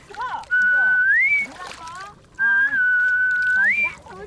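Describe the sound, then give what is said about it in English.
Two long, sustained whistles from free divers resurfacing in the ocean, dolphin-like, each holding a steady pitch and sweeping upward at the end, over gentle water sloshing and faint background voices. “When they resurface, they they actually they whistle.”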